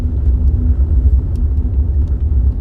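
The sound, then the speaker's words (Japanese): Steady low road rumble inside a moving car, with faint, irregular clinks and clatters of loose objects rattling somewhere behind. No one speaks. “なんかさなんかずっとガチャガチャ言ってない何置いてんだろうゴルフバッグみたいな音するよな”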